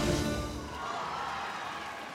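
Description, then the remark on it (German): A large audience at an Apple product presentation claps and cheers as the Apple CEO comes onto the stage, in a dense, continuous wash of applause that holds steady for a couple of seconds, slightly fuller at the very start. “Er lächelt, als ihm Wellen von Applaus und Jubeln entgegenschlagen.”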